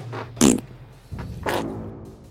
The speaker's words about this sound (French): chargé d'enregistrer les bruits des proutes des mangeurs de flageolets et choucroute